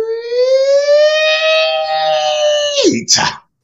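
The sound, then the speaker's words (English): A person loudly imitates a siren with a sustained, rising vocal wail held for nearly three seconds, then breaks off with a short breathy laugh or exhale. “Wow, you started to sound like my a, eardrums, like a siren.”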